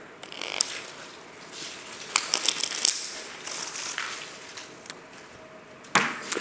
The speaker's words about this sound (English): I'm sure many of you have decks of cards with you. You're not allowed to fiddle during the show. Now you can. Get your decks out. Decks. Thank you. We ready? On the count of three, I want a riffle shuffle and a waterfall. One, two, three.